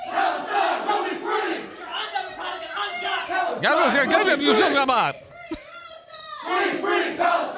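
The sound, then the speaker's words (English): A crowd of protesters, told to leave an official proceeding they interrupted, chants loudly in unison as they go through a hall, voices rising and falling in rhythmic shouted bursts, with a brief dip and a sharp clap-like hit before the chanting surges back. “Um, but they go chanting through the hall.”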